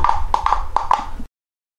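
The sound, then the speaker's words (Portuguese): Hollow, ringing taps on an empty glass bottle mimic a horse's clip-clop, about six clear knocks in a loose galloping rhythm with no talking, ending abruptly. “Boêmio e problemático com bigode cavalga com o vento a lhe soprar na fronte. Barulho, barulho este produzido por uma garrafa vazia.”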